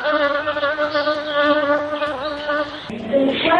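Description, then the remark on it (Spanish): A bee buzzing sound effect: a loud, steady, continuous droning hum that wavers slightly in pitch and shifts near the end, with no voices present. “Luego fue con la abeja, pero lo rechazó.”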